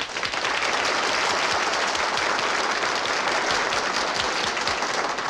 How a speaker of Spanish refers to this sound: Armando se acaba de convertir en nuestro segundo patrocinador. Un aplauso para Armando.